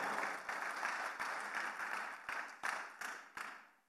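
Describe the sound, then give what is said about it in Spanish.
Applause from a church audience, given to the Lord: a dense wash of many hands clapping, fairly loud and steady, with a few sharper claps standing out before it fades at the end. “Dele el aplauso si se lo va a dar al Señor, por favor.”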